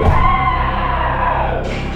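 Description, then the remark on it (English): A single voice imitates a woman's guttural growl blended with a strained scream as she crawls on the floor. It is one loud, unbroken cry lasting about two seconds, with a harsh, raspy edge and a brighter shriek rising near the end. “she just starts crawling like the grudge, screaming and growling”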